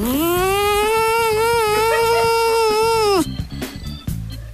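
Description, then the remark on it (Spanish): A person imitates a honeybee's buzz with a steady, droning hum held for about three seconds, fairly loud, then breaks off into scattered breathy noises. “No, pero es que la de miel, incluso la de miel hasta se confunde con una mosca, pues, entonces a eso eh, eh, estamos refiriéndonos al zumbido.”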